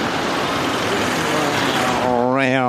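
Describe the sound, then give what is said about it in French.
A car passes on a street, its broad rushing roar filling the scene before giving way to a steadier, droning engine hum near the end. “Vous allez entendre peut-être les voitures passer, regardez.”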